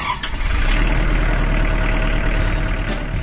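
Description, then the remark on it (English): A Kubota Standard L compact tractor's diesel engine idles, a steady low rumble and chug that holds an even level throughout, with no voices. “That's the sound of a Kubota Standard L compact tractor, now rolling off the line from Kubota's assembly line in Jefferson, Georgia.”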